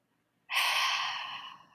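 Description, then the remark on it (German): A single deep, airy breath, one of three deep breaths taken in and out, swelling quickly after a short silence and slowly fading away. No one speaks. “Also drei tiefe Atemzüge und der Atem ist für mich der zweite Anker, die Verbindung zu mir selbst.”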